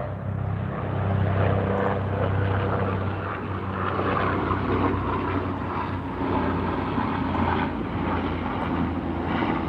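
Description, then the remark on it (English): A helicopter drones loudly overhead, its steady low engine rumble and rotor hum filling the whole stretch without fading, constant with no voices. “Look at that helicopter right there. Y'all hear that helicopter?”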